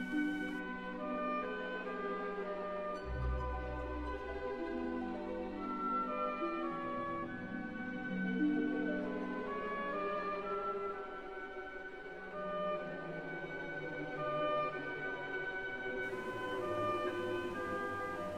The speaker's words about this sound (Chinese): 我们今天的背景音乐只是选取了很少很少的一部分，而《天鹅湖》里面最最著名的主题呀，就是我们听到的下面这一段音乐了。